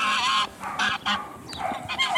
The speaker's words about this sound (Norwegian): Først kom du til familien Børli. De hadde fire store, hvite gjess.